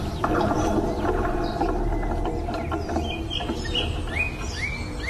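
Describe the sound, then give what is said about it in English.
A single songbird in Benmore sings continuously, a quick series of rising chirps and whistles that grow more distinct toward the end, set against a dense, steady outdoor background hum. “One songbird that just sung its little heart out in Benmore.”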